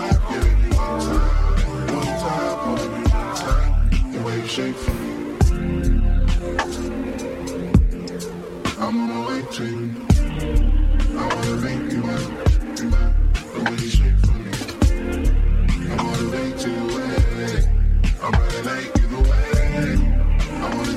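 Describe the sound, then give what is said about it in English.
An instrumental beat plays steadily with punchy drum hits over layered melodic tones, loud throughout with no one talking. “It's a little bit more interesting uh, musically than the last beat”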